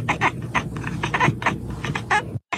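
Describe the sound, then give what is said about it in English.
A cat chatters at prey in quick, staccato bursts, a rapid run of clicking chirps repeated with no talking, then stopping abruptly. “You know, the sound cats make when they see a fly buzzing around the room or a bird out the window.”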